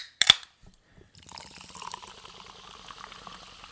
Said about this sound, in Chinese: 让我们去听一听气泡水的声音。